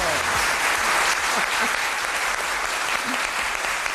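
Sustained applause from a large audience in Monforte de Lemos welcoming radio presenter Julia Otero, a dense, steady wash of many hands clapping at once, loud and even throughout with no voices standing out.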